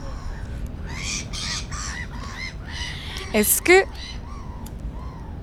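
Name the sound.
seagulls calling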